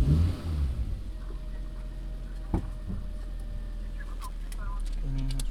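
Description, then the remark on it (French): Steady low rumble of a car engine running while driving, a continuous droning hum with a brief knock partway through and faint, indistinct voices in the background. “Euh, non, non, je suis en voiture encore.”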